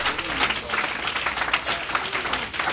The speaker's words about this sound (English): If you believe God to do a great work, would you clap your hands before you're seated? Would you give him glory and honor? Hallelujah.